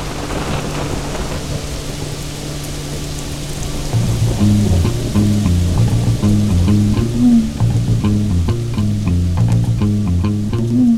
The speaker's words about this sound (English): the final step was to hop into a motorized canoe and cross the mighty Maroni River middle of a tropical rainstorm.